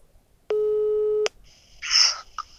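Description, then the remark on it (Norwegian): A single steady electronic ringback tone of a phone call placed from a car sounds for under a second, clear and fairly loud, then a short burst of hissy noise and a click follow as the line connects. “Da ringer vi Espen.”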